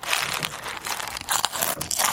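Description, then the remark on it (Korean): A bag is torn open and crinkled, to be emptied into a paper cup, with bright, irregular bursts of crackling and rustling plastic running for a couple of seconds and no voices. “봉투를 여는 거죠?”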